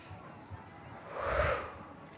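A group standing with both feet on the floor draws a deep belly breath in through the nose together: one airy, hissing inhale that swells up and fades over about half a second, with faint low rumbling and no talking.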